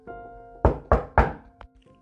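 Three heavy knocks on the wooden back door of a house at 11 at night, in quick, even succession, loud, followed by a faint softer tap, with a low steady hum in the background and no one speaking.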